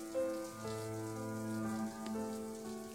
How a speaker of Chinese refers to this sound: 默默地打开莲蓬头，用水继续冲洗他身上的泡沫。